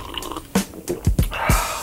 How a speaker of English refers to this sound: Yo, my bad. Let me take another sip of this chai.